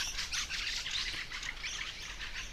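Fieldfares chatter in harsh, rapid bursts of calls, overlapping almost continuously, with a faint low rumble underneath and no talking.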